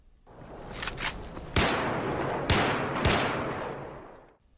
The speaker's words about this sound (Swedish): när plötsligt en maskerad man beväpnad med k-pist kliver in genom entrédörren. Han skriker Let's get the party started. Get down on the floor. Och fyrar av en skottsalva i taket.